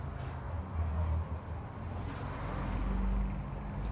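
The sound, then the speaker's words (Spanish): Steady low rumble of street traffic, with cars passing and engine drone swelling and fading, a continuous background of road noise with no one speaking. “No, todos los carros, hombre.”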